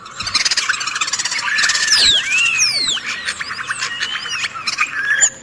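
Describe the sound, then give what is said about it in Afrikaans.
European starling (Sturnus vulgaris) chattering call: a dense, continuous stream of squeals, whistles and clicks, with rising and falling whistled notes weaving through the rapid, busy chatter, steady throughout. “Die ding klink so.”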